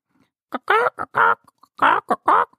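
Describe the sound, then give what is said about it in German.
A voice imitates three hens clucking: six short, nasal, squawking bursts in two quick groups, fairly loud, with no other sound behind them. “Da kommen ihnen drei Hühner und ein Hahn entgegen.”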